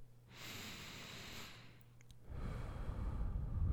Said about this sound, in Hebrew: אוקיי, עכשיו בואו נעצור שנייה וננשום נשימה עמוקה.